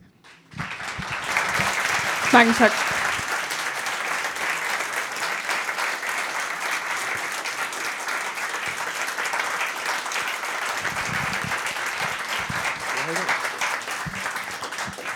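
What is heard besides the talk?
audience applause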